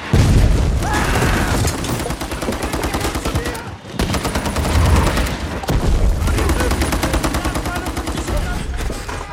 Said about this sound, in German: weil so viele Explosionen in dem Film sind, wahnsinnig viel lautes Kampfgeschehen.